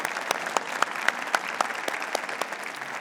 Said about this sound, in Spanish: Bienvenidos, bienvenidos. Wow, bastantes por aquí. Bienvenidos a la iglesia del pueblo. Un aplauso, por favor.